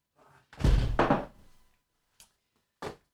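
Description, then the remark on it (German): A window is pushed shut with a heavy thunk that rings briefly, followed by two small, sharp knocks as the latch settles. “Warte mal, ich muss mal kurz das Fenster zumachen.”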